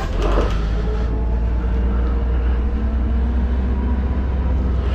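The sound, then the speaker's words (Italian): A steady, heavy engine rumble fills the interior of a moving city bus, fleet number 5541 on line 57, near the corner with via Caduti di via Fani, with a constant low drone and broad road noise that holds evenly throughout, no voices heard. “Allora, matricola 5541 eh, dell'autobus.”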